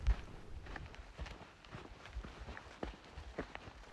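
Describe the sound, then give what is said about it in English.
Footsteps crunching along a dirt trail while hiking back from a canyon in the morning, a steady walking rhythm of scuffs and gritty steps, moderately quiet with faint outdoor ambience behind them. “This is the sound of me hiking back this morning.”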